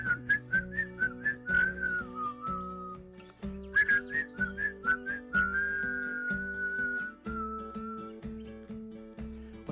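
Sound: people whistling a tune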